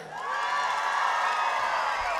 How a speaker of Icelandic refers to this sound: … er með okkur hérna hljómborð. Við ætlum að gefa hann góð klapp.